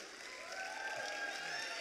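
An audience applauds with steady, dense clapping that holds an even level throughout, with faint voices or cheers mixed into the wash of sound.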